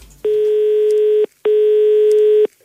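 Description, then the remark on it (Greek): A telephone line tone while calling the Afthonia grocery shop: two long, steady electronic beeps about a second each, separated by a brief pause, loud and clear with no voices. “οπότε πρέπει να ξαναπάρουμε το Παντοπολίο η αυθονία του κ. Στέφανου, να του πούμε τα δέοντα, αλλά θα το κάνουμε εμεί”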